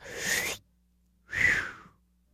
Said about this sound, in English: so we have to breathe we have to breathe it in look i'm gonna do it right now